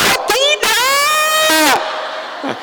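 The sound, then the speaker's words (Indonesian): A baby lets out a loud, high-pitched scream, starting with short sharp yelps and then a long, strained wail that rises and trails off. “Itu kan bayinya menjerit”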